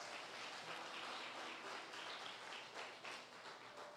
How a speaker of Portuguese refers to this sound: Se você crer, dê um aplauso ao Senhor Jesus.